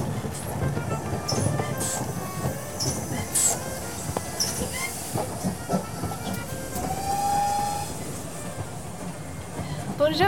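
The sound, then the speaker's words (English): A busy train station in Paris with steam hissing steadily, a rumbling engine, metallic clanks, and a brief high squeal midway, while indistinct voices murmur in the background. “How is the train?”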